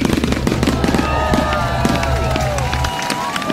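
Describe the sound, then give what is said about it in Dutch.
Fireworks burst in a dense, continuous barrage of cracks and pops, with whistling rockets rising through them, over a murmuring crowd and a steady low rumble that cuts out near the end. “Nee, want de geplande vuurwerkshow ging daar 31 december niet door.”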